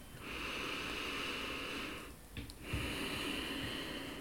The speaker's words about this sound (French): Inspire, et l'expire se font par le nez. Garde la respiration la plus confortable possible.